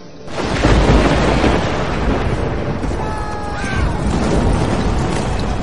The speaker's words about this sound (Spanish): Rayos y truenos a lo lejos, dioses antiguos dispuestos a ver una contienda de titanes.